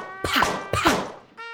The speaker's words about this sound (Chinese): 气球一个个被扎破了，刺猬阿兜摔了个大马趴。